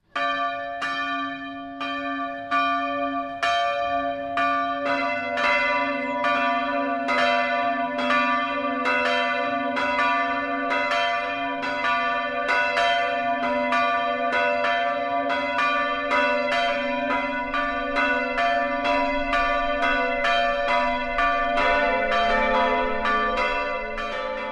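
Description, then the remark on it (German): Church bells in Affaltern, Swabia, Germany, ring for noon steadily in a dense, overlapping peal, several bells striking in quick rhythm with a sustained hum beneath, loud and continuous without any voices. “Das Mittagsläuten kommt heute aus Affaltern in Schwaben.”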